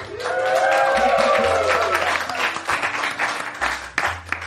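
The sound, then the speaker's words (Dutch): A live studio audience at Studio Kookhaven applauds and cheers during a recording of Ballet Croquet, a dense wash of clapping with some whooping voices, loud at first and gradually thinning out over a few seconds. “U hoort het, Ballet Croquet wordt opgenomen voor een live studio publiek.”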